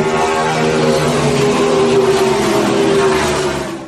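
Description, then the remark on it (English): A car in first gear revs up and accelerates as the accelerator is pressed, its loud, steady roar climbing in pitch over about four seconds, continuous with no talking. “Ponemos la primera velocidad. Pisamos el acelerador.”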